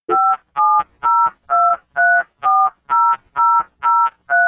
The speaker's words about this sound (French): Cette suite de 12 bips est également très familière, puisque c'est le son d'un numéro de téléphone que l'on compose. Le modem fait de même. Après avoir décroché, il appelle un deuxième modem récepteur auquel il veut se connecter.